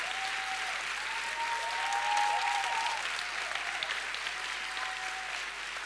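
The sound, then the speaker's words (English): An audience claps hands in sustained, dense applause, steady and fairly loud throughout, with faint sustained organ-like tones drifting underneath. “You better clap your hands.”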